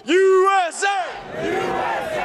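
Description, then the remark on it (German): A loud, sustained shout from one voice rises and falls, then breaks into a dense roar of many people yelling together, continuing as a noisy crowd of Trump supporters during the storming of the US Capitol on 6 January 2021. “Der Sturm aufs Kapitol.”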